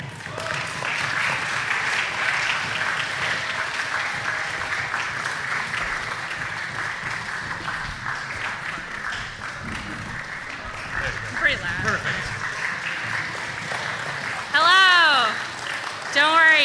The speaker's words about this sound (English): you can stop clapping.